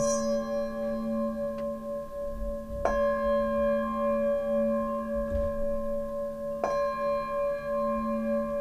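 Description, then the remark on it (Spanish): A singing bowl rings with a sustained, shimmering tone, struck three times at steady intervals so each strike renews the resonance. Clear, with no voices. “Porque el sonido del gong y de los y de, cualquier instrumento, de, un cuenco.”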